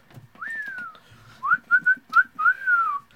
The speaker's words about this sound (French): Euh, j'espère que mon, sifflage va pas briser les oreilles parce que là, on l'a pas dit non plus, mais on a un nouveau micro.